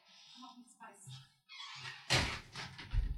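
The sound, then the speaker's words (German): A door is creaking open to let a cat out and then shutting with a solid knock, while a person talks briefly around the movement. “Okay, ähm, sorry, kurz, meine Katze bangt gerade den Kopf gegen die Tür. Ich muss sie kurz rauslassen.”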